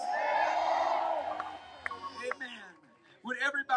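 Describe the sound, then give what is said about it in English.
A crowd answers a speaker's call to shout yes, erupting in loud, sustained shouting and cheering for over a second, then fades into scattered calls and whoops before a man's voice comes back in strongly. “Somebody shout, Yes!”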